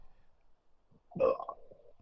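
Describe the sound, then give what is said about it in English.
A single loud, throaty belch erupts after a quiet moment, rumbling low and then trailing off in a short gurgle. “Sorry for the belch.”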